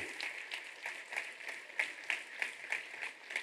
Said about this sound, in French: Merci à toutes et tous ce soir, une fois encore, de les applaudir. Merci beaucoup.